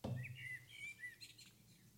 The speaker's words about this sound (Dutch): Merel. Ja. Yes, baby. Dat is Merel.